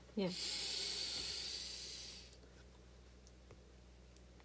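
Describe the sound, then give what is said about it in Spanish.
A single deep breath drawn in, a loud airy hiss lasting about two seconds before fading into near silence with a couple of faint clicks. “Bueno, entonces terminamos con una respiración de dentro.”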